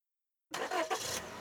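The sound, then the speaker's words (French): A police car's engine, a little way off, cranks and catches after half a second of silence, rising into a steady idle with a couple of brief surges. “Un peu plus loin, une voiture de police démarra.”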